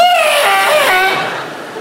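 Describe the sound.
A voice imitates car tyres screeching as a driver hugs the concrete curb at a motorway toll ticket machine: one loud, sustained high-pitched squeal that drifts slightly downward in pitch and fades a little at the end, with no other talking.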